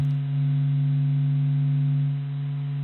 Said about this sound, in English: What you're hearing right now is called sun sonification, or in plain speak, the sound of the sun.